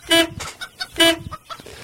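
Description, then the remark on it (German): A chicken clucks: two loud, squawky calls about a second apart, each trailed by a few softer, quicker clucks, with no talking. “Möchen, was machst du mit dem Huhn?”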